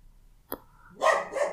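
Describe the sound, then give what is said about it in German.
A dog barks: a sharp single yap, then a burst of louder, harsher barking with a brief pause before a final bark, heard on its own. “ja, oh, wieder mit Hundegebell.”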